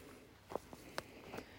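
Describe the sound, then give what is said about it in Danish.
A few quiet footsteps on soft, muddy ground by a stream in low, warm sunshine after heavy rain, four uneven steps spaced across a short stretch against a faint outdoor background, with no one speaking. “Men vi går her, og den lave, varme sol, den skinner ned på det lidt mudrede bækområde.”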